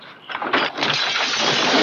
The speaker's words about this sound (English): Malcolm slams the ladder through the window as Opie watches.